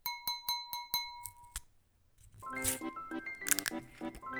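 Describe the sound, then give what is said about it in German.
Wine glasses clink together in a toast in a quick run of bright, ringing taps, each leaving a clear glassy tone hanging briefly, before a short pause and then music starting up. “Und Prost, Cheers, Cheers.”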